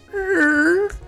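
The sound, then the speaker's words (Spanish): A single drawn-out creak of a chest hinge, voiced by a person imitating the sound: one steady, slightly wavering squeal of about a second, fairly loud. “Es es, que, ese es el sonido de la bisagra rechinando.”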